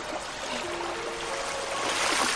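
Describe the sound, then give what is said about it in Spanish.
A dog and a boy swimming together in a river pool, heard as a steady, continuous wash of sloshing, rippling water that swells slightly toward the end, with no voices. “Los dos nadan.”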